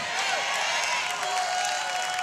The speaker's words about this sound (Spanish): ¿Alguien le da un aplauso a Jesús?